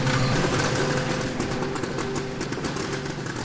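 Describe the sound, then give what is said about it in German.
A cocoon sorting machine, which separates soil from cocoons, runs steadily and loudly, with a rough, sputtering engine-like drone and rattling mechanical texture, like a moped with a struggling carburetor. “Anhören tut sie sich wie ein Mofa mit Vergaserproblemen, aber das Prinzip ist genial.”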